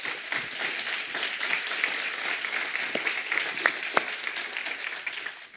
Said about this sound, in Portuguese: Vamos então dar uma salva de palmas para o nosso Deus.